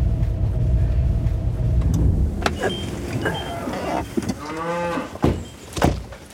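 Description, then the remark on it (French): A cow lets out a drawn-out moo, following a low engine-like rumble, with a few sharp knocks and clatters scattered around, outdoors on a cold day; no one speaks. The cow has slightly swollen hind feet. “C'est le moment de la vache.”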